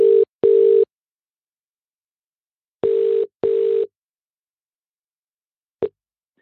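A phone call being placed on a new iPhone: a steady electronic ringing tone in two double-pulse bursts about three seconds apart, then a brief final blip, clear with no talking.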